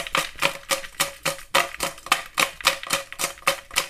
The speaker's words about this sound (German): Also, ich habe jetzt parallel die Aufnahme mit dem Handy gestartet, damit ihr seht, dass ich hier auch nicht schummel und ihr hört auch die Zettelchen, die ich in meine Losbox gepackt habe